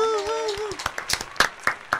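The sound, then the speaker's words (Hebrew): A brief drawn-out voice is followed by about five sharp hand claps at a steady, moderate pace, each crisp and fairly loud. “אז תשימו לב, קודם כל מחיאות כפיים. מחיאות כפיים לפעם.”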